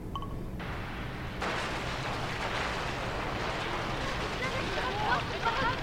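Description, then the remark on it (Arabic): Footage from the night of a yacht explosion: the blast erupts into a loud, broad rumbling roar that swells in two sudden jumps and then holds steady, with faint voices and high cries rising through it near the end. “لقينا تصوير من ليلة انفجار اليخت اختصر مو شيكتوا تسجيل من قبل اي بس هذا من زاوية ثانية طال عمرك”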